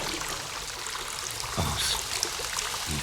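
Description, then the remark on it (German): Steady rushing water pours and splashes continuously into a flooded cellar, a broad hissing flow with a brief surge midway, fairly loud, with no voices. “Das Wasser steht ihm bis zum Hals.”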